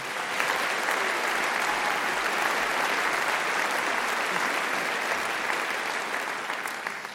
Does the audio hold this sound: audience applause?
yes